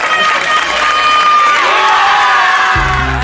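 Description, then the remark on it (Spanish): Wedding guests cheer and shout together in a loud, continuous crowd roar, with high whoops and excited voices layered throughout and a low rumble joining near the end. “Así suena la boda de tus mejores amigos, los de toda la vida, tras dejar atrás tus problemas con el juego.”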